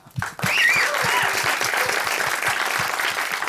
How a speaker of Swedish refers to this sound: De är värda en extra applåd tycker jag.